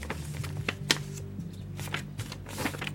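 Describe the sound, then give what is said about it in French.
Quiet paper handling as a sheet from an old notebook is folded into an origami frog: soft crinkles and a few sharper creasing snaps scattered irregularly over a low steady hum, with no talking. “Il est bizarre ce papier.”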